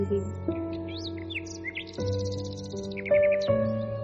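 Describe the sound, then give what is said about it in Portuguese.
Bright, high bird chirps and short trilling phrases repeat throughout, clear, layered over a soft, steady drone of sustained musical tones. No one speaks. “Seja um pássaro cantando, aquele som que lhe agradar e que você está ouvindo realmente.”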